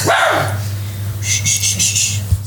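A dog gives a quick bark at the start, followed by higher-pitched yelping or whining calls over a steady low hum, loud, with no talking.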